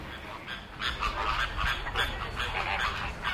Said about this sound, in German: Ich frage zum Beispiel bei den Flamingos, macht mal die Augen zu und hört mal her, wie klingt denn das? Ja? Und ein Kind vom Land hört da die Gans raus. Stadtkinder hören das nicht.